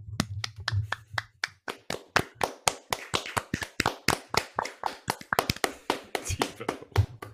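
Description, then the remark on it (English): A small group of hosts claps hands together for several seconds, a steady patter of sharp overlapping claps that keeps going at an even pace without any voices. “But can we please clap it up?”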